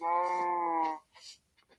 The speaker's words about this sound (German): Perfekt, dann haben wir 1, 2, 3, 3 Kühe und ein Schaf. Kommt ihr?